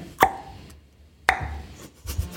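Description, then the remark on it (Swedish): Sharp mouth pops imitate a tennis rally, three crisp plock sounds at roughly even intervals, fairly loud with soft breathy noise between hits. “Jag ska imitera en tennismatch.”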